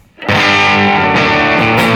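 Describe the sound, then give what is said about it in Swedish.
A fuzzy, distorted electric guitar pedal tone, played without a preamp, kicks in after a brief quiet start and sustains loud and saturated, sounding a bit raw and broken up, with no voices. “Utan preamp mm. lite trasig.”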